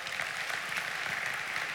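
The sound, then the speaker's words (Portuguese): A church audience applauds to praise God during a sermon, a steady, dense wash of clapping hands that holds at an even level for the whole moment without any voices on top. “Aplauda ele por essa palavra.”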